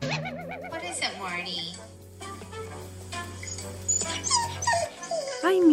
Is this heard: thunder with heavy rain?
no